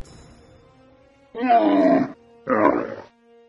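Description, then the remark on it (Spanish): Two loud, harsh grunting bellows from a camel, each lasting under a second with a short pause between, rough and throaty with a buzzing, groaning quality, over a faint low background hum. “Mira qué ruido hace el camello.”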